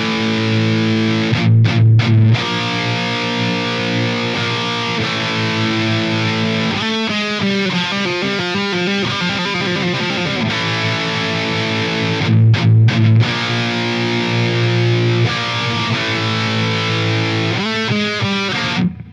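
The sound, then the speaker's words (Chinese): Heavily distorted electric guitar with a scooped, mid-cut tone plays a loud, chugging metal riff, with tight palm-muted bursts and rapid repeated chugs, alone with no voices. “让它的这个 EQ 曲线呢中间凹下去，这样呢，音头就会显得很不明显，这个哐哐哐哐呢就变成了歘歘歘歘，哎，这就对味儿了。”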